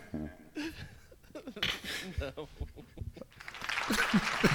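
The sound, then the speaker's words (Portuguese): People talk and laugh, then a burst of applause, a sound effect played from a soundboard, swells up near the end, a dense crackling clapping that rises in volume beneath the voices. “Ai, era palmas!”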